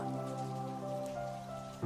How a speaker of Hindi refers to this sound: तभी बाहर अचानक हल्की हल्की बारिश शुरू हो गई बारिश ये बारिश जब भी आती है शेखर को और बेचैन करती है